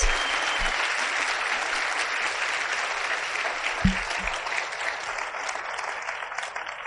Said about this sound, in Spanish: Yo quiero que todos les demos un fuerte aplauso a ellos, son las más importantes.